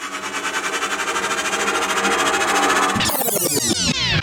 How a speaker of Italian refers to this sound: Ma eh, lo sentite anche voi questo ticchettio? Forse la nostra storia non è ancora finita. È la macchina del tempo che ci suggerisce che il nostro viaggio non è ancora finito.